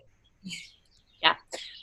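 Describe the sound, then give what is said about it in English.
A few short, bright bird chirps ring out in quick bursts, fairly loud, with brief pauses between them and a faint low rumble in the background; birds outside on a farm just outside the Quad City area on the Iowa side, about 25 minutes west of Davenport. “You can hear the birds, they're being very loud right now.”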